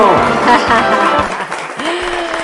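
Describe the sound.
Steady applause from an audience at a Children's Day (Día del Niño) event from Voces de mi Tierra, a dense wash of many hands clapping at an even, fairly loud level, with voices murmuring and calling out underneath.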